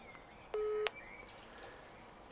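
A short, steady electronic telephone dialing tone as a phone is dialed to call someone's brother, sounding for about a third of a second, ending in a sharp click, followed by quiet line hiss and another click at the end. No one speaks.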